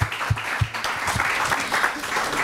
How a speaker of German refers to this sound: Willkommen. Applaus